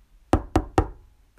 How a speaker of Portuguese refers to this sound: Viu a casa, ouviu a festa e pensou: porque não me convidaram? E bateu à porta.